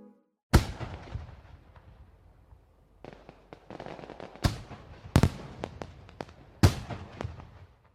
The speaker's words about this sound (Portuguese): Suponha que de repente passa a ouvir o barulho de fogos de artifício.